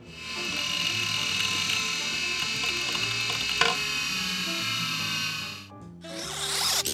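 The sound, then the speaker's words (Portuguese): An old hard disk drive, known as a Winchester, spins with a steady high-pitched whine, punctuated by soft mechanical clicks and chattering as the heads seek, continuous with no voices. “E como sempre, vamos começar com o som misterioso da semana passada, que estava bem difícil esse, que é era um som de um HD antigo, famoso disco rígido, ou para quem tem mais de 40, o famoso Winchester.”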